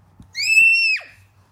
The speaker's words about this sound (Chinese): 那你干嘛尖叫？